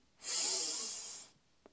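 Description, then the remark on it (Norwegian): A single long, deep inhalation during a guided breathing exercise, a steady airy rush of breath lasting about a second, strong at first and slowly tapering off, with no talking over it. “Pust godt inn,”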